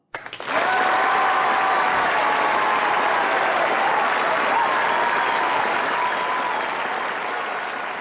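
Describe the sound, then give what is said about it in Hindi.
Parents in a school auditorium applaud after a children's school drama society play, 'Bhaari Basta': a dense, sustained wash of many hands clapping at full volume that starts abruptly and barely fades over eight seconds, with a faint murmur of voices underneath. “हम्म, भारी बस्ता नाटक देख के पूरा ऑडिटोरियम दंग रह गया पेरेंट्स की स्माइल और तालियां रोके ना रुके”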